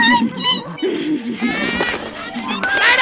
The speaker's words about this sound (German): Kleiner Vogel! Hallo. Hallo!